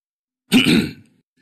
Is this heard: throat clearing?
yes